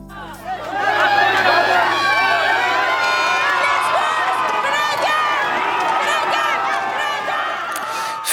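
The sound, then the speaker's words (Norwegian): Several thousand refugees and migrants, surrounded by police, demonstrate at the Moria camp on Lesvos, shouting "Frihet" (freedom): a dense, loud wall of overlapping voices with cries rising above the din, steady throughout after a brief quieter start. “Frihet ropte flere tusen flyktninger og migranter i går da de demonstrerte ved Moria-leiren på Lesvos, omringet av politiet.”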